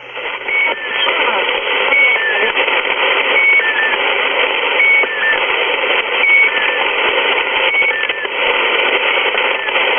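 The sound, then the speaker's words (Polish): A shortwave radio station signal, with repeating squeaky chirping tones over a steady band of loud hissing static, cycling regularly about every one and a half seconds. “Jak dotąd nie udało nam się znaleźć żadnych dokładniejszych danych na temat Squeaky Wheel.”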